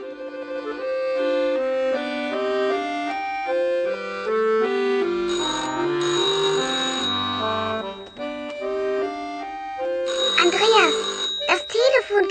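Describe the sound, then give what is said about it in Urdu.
A telephone rings at home near the end, a bright ringing burst following a stretch of steady melodic tones of music playing that step from note to note, fairly loud. “اسی اسنا میں ٹیلی فون کی گھنٹی بجتی ہے اب آپ کا کام یہ معلوم کرنا ہے کہ ٹیلی فون کرنے والی خاتون کون ہے اور کیا چاہتی ہے”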